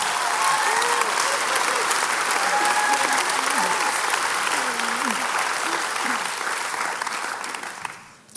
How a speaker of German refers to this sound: Lass uns ihr einen grossen Applaus geben.